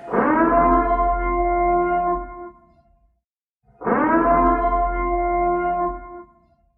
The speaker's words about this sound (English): You know what? We're going to do it right now. Sound the motherfucking alarm. It's time for the purge.